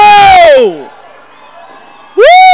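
At a speaker's call to give a shout, a crowd lets out a loud, sustained shout that falls in pitch and fades, then after a short murmuring lull a second big cheer surges up abruptly.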